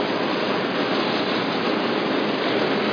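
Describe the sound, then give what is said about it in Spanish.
Water pours into a glass in a steady, unbroken rush for a few seconds, a fairly loud hiss of liquid with no voices over it. “Yo también voy a ver agua, ¿eh?”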